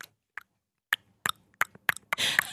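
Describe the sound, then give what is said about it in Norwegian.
A voice tries to imitate an alien-like clicking sound with the mouth: about eight sharp, wet clicks spaced irregularly, ending in a longer, hissy burst of breathy noise. “Nå skal jeg prøve å gjøre det.”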